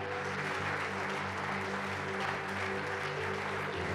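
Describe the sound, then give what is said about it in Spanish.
A church audience claps steadily for the whole four seconds as applause to God, a dense, even wash of applause with a sustained low musical drone holding underneath. “Dale tu mejor aplauso a Dios entonces.”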